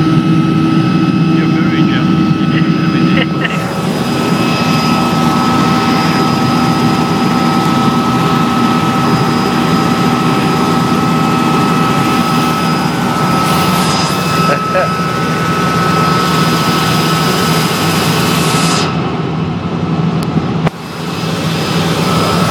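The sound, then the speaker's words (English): Helicopter engine and rotor in flight during a helicopter ride at The Grove Hotel & Spa, with Wembley Stadium in view: a loud, steady, unbroken drone with a droning hum and a constant whine layered on top, holding at the same level throughout. “My first helicopter ride!”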